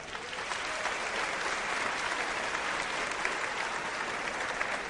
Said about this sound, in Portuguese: Os que têm mais de 35 e abaixo de 12 que estão aqui, vamos aplaudir essa galera.